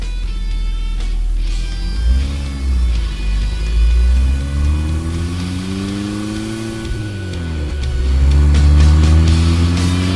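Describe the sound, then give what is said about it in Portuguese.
A car engine revs loudly and pulls away, its pitch climbing and dropping through gear shifts as it accelerates over a steady low rumble, with no talking. “Vocês pegam o carro. Quem que tá dirigindo?”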